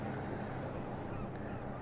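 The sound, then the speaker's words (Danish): A dense, continuous chorus of oystercatchers, redshanks and gulls standing on a beach by calm water on a peaceful day, honking and squawking calls overlapping at a steady level with no pauses and no voices. “Der står en masse strandskader og rødben, som jo er vadefugle, og så er der en masse måger.”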